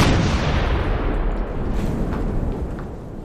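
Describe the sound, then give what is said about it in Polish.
A loud dynamite blast bringing down a rock wall rolls out as a dense, sustained roar with deep low rumble and crackling debris, slowly easing over a few seconds with no voices. “Ale łupnęło!”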